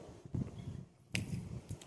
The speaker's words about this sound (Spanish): ¿Qué aprendimos acá? Que suenan bonitas las cachetadas.